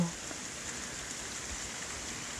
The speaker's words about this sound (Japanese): 雨が降ってるんですよ聞こえますかばらく雨が続くみたいなんですけど本当憂鬱になりますよね